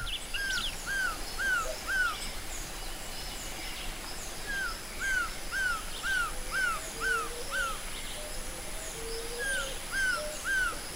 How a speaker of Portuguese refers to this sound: Agora, um pássaro colorido pousa na beira do rio, um surucuá dourado.